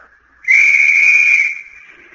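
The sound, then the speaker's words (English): A single loud, sustained whistle blast with a steady high pitch starts abruptly, holds for about a second, then fades out with a brief tail, on a white beach where over a thousand skin divers in rubber suits are gathered. No one speaks. “On that whistle, a thousand snorkels were slurped into place”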